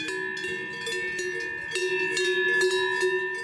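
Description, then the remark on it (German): Cow bells clank steadily from grazing Simmental cows on mountain meadows at about 1800 metres above sea level, above Gstaad in the municipality of Saanen, in autumn, a busy overlapping jangle of metallic tones with irregular strikes, moderately loud throughout, with no voices. “Noch grasen die Simmentaler Kühe.”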